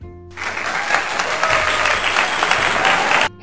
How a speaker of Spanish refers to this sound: Aplausos, señorita directora.